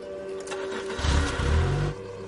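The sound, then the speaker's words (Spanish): A car engine cranks and catches, revving with a deep rumble for about a second before easing off as the vehicle pulls away to follow a motorcycle. No one speaks. “arranca y lo sigue.”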